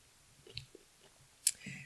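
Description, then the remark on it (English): Quiet chewing of kimchi: soft, moist mouth clicks and smacks spaced irregularly, then one sharper crunchy bite near the end, with faint breathy sounds and no clear speech. “They are chewing.”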